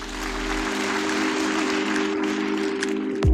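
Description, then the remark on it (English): A round of applause from a crowd, steady dense clapping that holds at an even volume throughout, with a low sustained hum running underneath and a brief thump at the very end. “And I think that you both deserve an enormous round of applause.”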